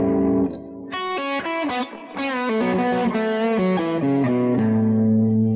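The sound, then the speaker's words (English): A distorted electric guitar plays a lively melodic major pentatonic solo over an A chord, bending and sliding between notes in a bright, major-sounding run, loud with no talking. “Well, if I play that again, and play major pentatonic,”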